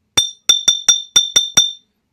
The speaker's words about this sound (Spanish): ¿Y de qué material? Sí, acertaron. Es una botella de vidrio.